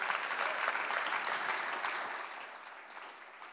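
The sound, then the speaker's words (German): An audience at a sermon on the Holy Spirit gives Jesus a round of applause, a dense wash of many hands that stays strong at first and then gradually tapers off, with no voices over it. “Komm, dann lass uns Jesus einen Applaus geben.”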